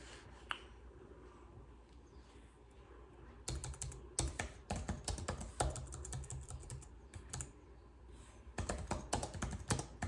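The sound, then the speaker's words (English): Rapid typing on a battery-powered computer keyboard whose batteries are getting low: a quiet stretch of light taps, then a dense burst of sharp clacking keystrokes that runs steadily, pauses briefly, and picks up again. “the way I'm typing, I can feel the batteries.”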